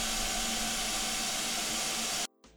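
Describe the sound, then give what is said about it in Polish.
A dense, loud wash of steady machine noise from a fan, an air purifier and a vacuum cleaner running together, recorded without RTX audio noise removal, with faint tonal whines, cutting off abruptly near the end. “A teraz nałóżmy to wszystko na siebie, czyli wentylator, oczyszczacz, odkurzacz i sprawdźmy jak to słychać bez włączonego RTX audio.”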